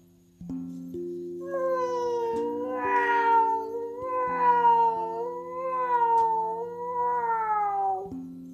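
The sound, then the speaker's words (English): A long, drawn-out cat meow wavers up and down in pitch for several seconds, clear, over a steady bed of sustained background music chords. “It sounded like a cat, but fortunately, Muffins couldn't go there right now.”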